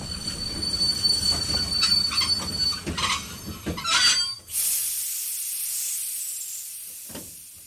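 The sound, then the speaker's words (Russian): A train rumbles and clatters over rail joints on curves with squealing wheels, then halts abruptly at a large station, leaving a steady loud hiss of released air and one last faint clunk. “Поезд застучал на стыках поворотов и остановился.”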